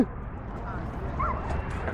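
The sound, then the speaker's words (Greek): A small dog gives a few short, high yips and barks while being greeted and petted, partly buried under steady rumbling background noise and murmuring voices. “Πέφτει το χαϊδέρι στο σκυλάκι και με ένα μαγικό τρόπο το μαλλί μου πιάστηκε πάνω.”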